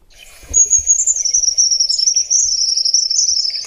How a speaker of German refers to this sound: Also man hört schon, der Vogel ist genau wie seine Größe eher zurückhaltend, aber hier kommt noch ja. das Lied.